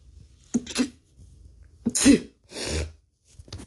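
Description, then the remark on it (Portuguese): Loud sneezing: a short breathy burst, then a forceful sneeze with a hissing exhale, followed by another sneeze and a quieter sniff at the end. No one speaks. “Ai, nossa, essa, nossa, esse espirro doeu muito.”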